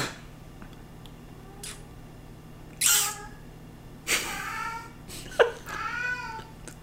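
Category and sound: animal, cat meowing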